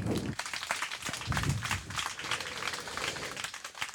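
An audience applauds a contestant who has just scored 25 points, steadily throughout, a dense crackle of many hands clapping at moderate loudness with no voices on top.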